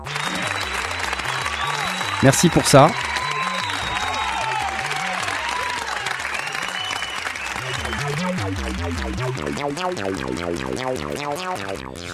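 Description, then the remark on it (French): An audience claps steadily for several seconds, the applause sustained and fairly loud over a bed of bouncy electronic music, with a brief spoken phrase partway through. “On va applaudir”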